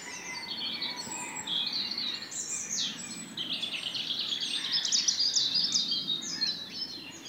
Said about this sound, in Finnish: No nyt metsämikissä on sitten punarinta. Ja sehän on tässä viime hetkinä vähän aktivoitunut. Joo, se on selvästi ottanut tämän rastaiden paikan ja haluaa nyt esiintyä. Ihan samalla paikalla todellakin laulaa. Kuunnellaan tätä.